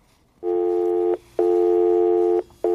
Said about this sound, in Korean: 음, 통화 중 뚜뚜 소리입니다.